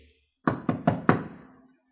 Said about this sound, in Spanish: Tocamos la puerta, nos abren la puerta, nos miran, nos la dejan entreabierta